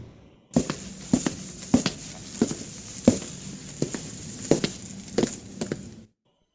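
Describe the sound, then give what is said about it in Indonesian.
Footsteps walk steadily down a corridor at about half past eleven at night, about a dozen hard, evenly spaced steps, with a faint steady hum in the background and no talking. “Terdengar ada suara orang yang sedang berjalan di lorong.”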